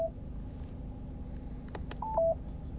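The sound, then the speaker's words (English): Short electronic telephone tones: a brief beep at the start, a couple of faint clicks, then two quick stepped beeps near the end over a low steady hum, with no one speaking. “But after the beep, please say.”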